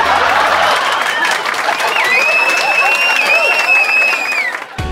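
An audience claps steadily in a dense, loud burst of applause, with a high whistling tone and some cheering rising over it midway before the clapping thins out at the end.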